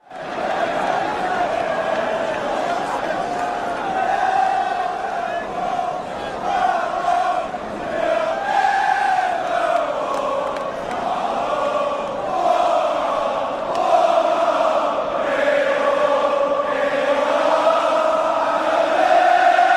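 A huge football crowd sings an anthem linked to Liverpool in unison, a slow, swelling melody with long held notes, loud and steady throughout with no talking over it.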